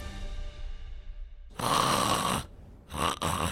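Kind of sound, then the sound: vocal imitation, voice imitating snoring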